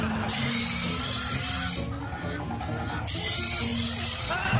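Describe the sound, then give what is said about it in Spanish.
A knife blade for a fighting cock being sharpened: two long, loud, hissing scrapes of metal drawn across a stone, separated by a short pause, with no talking. “A ver, vamos a echarle filo a esta otra.”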